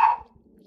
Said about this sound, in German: Entschuldigung, das ist mein Hund